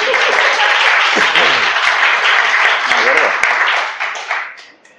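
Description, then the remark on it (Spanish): A crowd at Bar Musa on García Lovera street breaks into loud, dense applause during a live recording, with voices mixed in, the clapping sustained for several seconds before thinning out and fading near the end. “un aplauso a mí por la incompetencia.”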